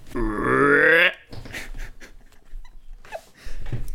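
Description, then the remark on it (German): A person voices one long, loud, throaty croak lasting about a second, imitating a frog, followed by softer breathy grunts and mouth noises. “Ist das eine Stimme, wenn man einen Frosch nachmacht?”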